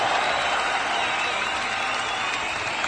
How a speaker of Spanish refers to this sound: Un aplauso para mí, por favor.